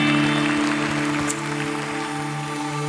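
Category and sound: crowd, audience applause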